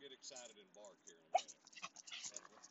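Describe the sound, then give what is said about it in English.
An excited dog whines in high, wavering bursts, then lets out one sharp, loud bark, followed by more yips and whimpers while a person talks in the background. “will get excited and bark here.”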